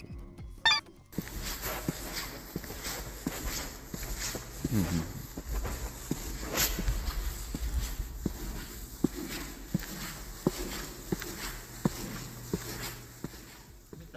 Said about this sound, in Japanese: うんうんうんいいね足音はやっぱ一番身近な音かもね歩いてるだけで出るからねいいねこれどうしよっかなまあでもピッチを下げてバスドラムなんかその低音の音にできるっちゃできるかなうんうんうんいろいろいじってみたいなって感じの音でしたね